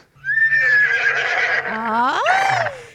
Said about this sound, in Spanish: mi marido se cree caballo, se cree caballo todas las mañanas, se la pasa relinchando